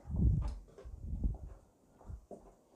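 A new salt mill grinding salt into water in a few rough, crunchy twists, fairly quiet, with small clicks between the bursts and no one talking.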